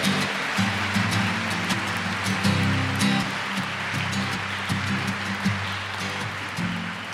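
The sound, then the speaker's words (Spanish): An audience applauds for the Virgin Mary on the feast of the Immaculate Conception, with dense, steady clapping that holds evenly for about seven seconds, accompanied by a low, sustained tonal hum underneath. “Un aplauso para la Reina del Cielo y de la Tierra.”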